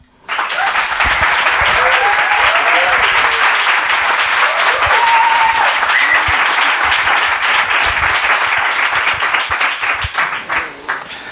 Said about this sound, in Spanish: ¿De verdad que hay público en directo en Headbanger? ¿De verdad que cabe? Pues queremos que lo escuchen. Este es el primer aplauso del público de este año en la luna.